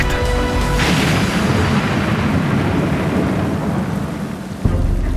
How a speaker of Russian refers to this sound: Грянул гром.